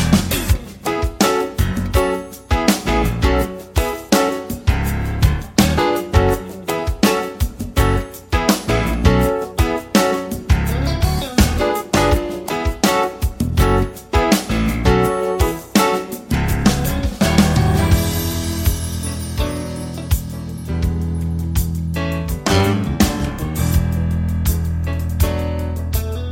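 A smooth jazz-pop song with a male vocal plays loud, a cover version driven by a steady, punchy beat over warm keys before settling into a sustained, fuller passage near the end.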